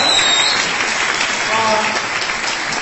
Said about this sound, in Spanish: El día de hoy justamente quiero agradecer a todo el equipo de liderazgo de aquí de esta hermosa ciudad Así que para los cuales les pido cordialmente un fuerte aplauso.